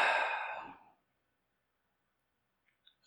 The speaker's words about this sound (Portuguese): Respirando. Puxa o ar fundo, bem grande. Solta o ar com força. Deixa o ar sair pela boca. Isso, puxa o ar bem grande, bem profundo